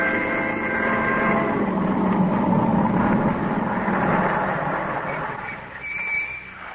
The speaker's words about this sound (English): Benson drive up to the boarding house after their picnic, quite unaware of the dark squad car parked at the curb a few feet ahead